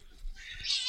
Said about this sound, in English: Is that a baby crying in the background? That was a, a kitten. Oh, I was gonna say a, that was a cat.